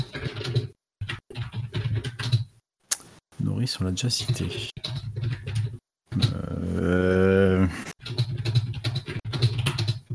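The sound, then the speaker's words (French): Quick clicks of typing on a computer keyboard sound faintly beneath people talking, coming in short bursts between spoken phrases. “ah, ah, il y a un clavier tape au clavier,”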